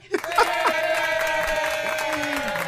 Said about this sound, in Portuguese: Seja bem-vinda. Vamos aplaudir.